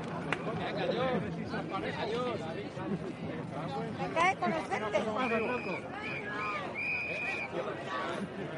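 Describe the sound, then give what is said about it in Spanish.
Dense crowd chatter as people begin arriving at the Plaza de Colón, an open outdoor space, with many overlapping voices at steady loudness and occasional whistles and brief tonal calls rising above the general hubbub. “Estamos aquí ya en la Plaza de Colón. Parece que está empezando a llegar la gente.”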